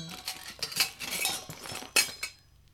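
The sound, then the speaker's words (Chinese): A pile of metal pots, cookware and utensils, along with scrubbing sponges, clink and clatter as they are looked through, in a quick, uneven series of bright, sharp knocks, with a louder clank near the end before it trails off into quiet. No one speaks. “嗯，还有一堆锅具啊，菜瓜布啊，还有，还有，这是什么啊？”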